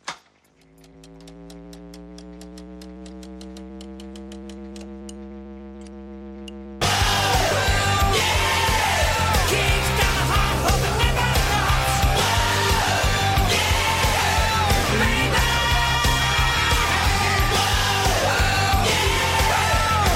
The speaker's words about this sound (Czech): Přesně, pouštím znělku 3, 2, 1, teď.